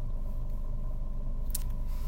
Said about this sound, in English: um sorry, the car's still on.